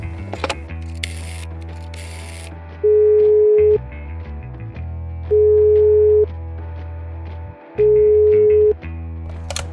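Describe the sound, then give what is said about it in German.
Mechanical clicking and ratcheting of a telephone in a kitchen being dialed to call Musikhaus Treppendorf, then three loud, steady ringback tones, each about a second long, repeating at a slow even pace, with no one talking. “Und währenddessen steht unser werter Lipstick-Zieh in der Küche am Telefon.”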